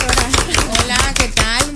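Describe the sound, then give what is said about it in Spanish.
A short burst of applause welcoming a guest bariatric surgeon into the studio booth: sharp, fairly loud claps at a brisk, uneven rhythm, with a sustained voice-like tone running underneath. “Un fuerte aplauso que está con nosotros.”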